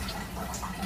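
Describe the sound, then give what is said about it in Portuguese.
Shower water from a doctor bathing a 69-year-old man in a palliative care hospital falls steadily onto a hard floor and runs into a drain, a continuous splashing hiss with faint drip-like flickers throughout. “Esse barulho que a gente está ouvindo é o da água de um banho caindo no chão e entrando no ralo.”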